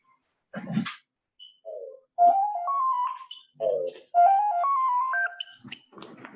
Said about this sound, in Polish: to telefon mojego dziadka, przepraszam